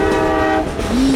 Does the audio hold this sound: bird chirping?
no